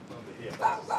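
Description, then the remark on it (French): A dog named Chicon gives two short barks in quick succession, moderately loud, over a murmur of background noise. “Oui, oui, c'est mon chien, c'est mon chicon, chicon.”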